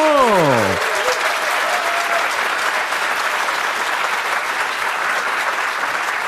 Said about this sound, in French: que nous accueillons avec un tonnerre d'applaudissements.